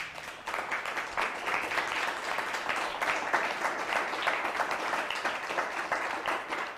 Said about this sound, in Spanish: Bueno, pues dale un fuerte aplauso, ya terminé.